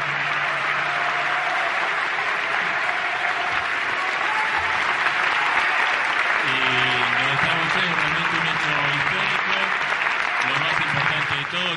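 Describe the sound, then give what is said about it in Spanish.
Sustained applause from a large audience for both candidates at the close of an Argentina Debate presidential debate in Argentina, a dense steady wash of clapping at constant loudness for the whole stretch, with a man's voice speaking faintly underneath partway through. “Y ahora sí, para ambos es este aplauso, agradeciéndoles en nombre de Argentina Debate y de toda la sociedad.”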